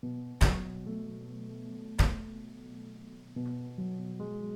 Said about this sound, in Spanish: Y otra vez, y otra vez, y otra vez. Sea quien sea, fuera quien fuera el que estaba fuera de mi cuarto, quería entrar. Por alguna extraña razón, no quería hacer nada más que tocar la puerta, quería que yo mismo abriera la puerta.